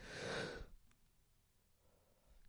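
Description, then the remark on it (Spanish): A single loud, breathy yawn-like exhalation lasting under a second, followed by near silence with faint rustling. “perdona que voy a bostezar”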